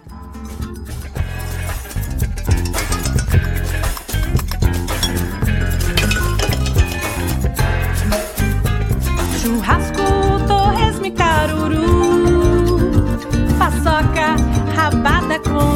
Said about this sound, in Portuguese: Então é uma música falando de comidas brasileiras, tocada basicamente com talheres e panelas e outros produtos da Tramontina.